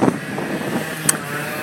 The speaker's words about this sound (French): il y a pas mal de vent donc j'espère que je serai assez audible